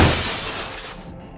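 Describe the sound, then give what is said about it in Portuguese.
Glass shatters at night with a loud, bright crash, then scattered shards tinkle and rattle as the noise fades over about a second, with no voices. “Um grito ecoou pelo ar da noite, seguido pelo som de vidro quebrado.”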